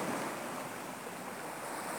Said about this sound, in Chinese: 海浪的声音离你越来越近